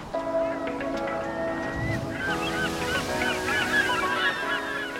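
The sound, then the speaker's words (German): A flock of geese honks continuously outdoors in nature, many overlapping calls, with steady wind or water noise underneath and no talking. “Jetzt gehen wir einfach mal raus in die Natur und gucken, welche Vögel wir sehen.”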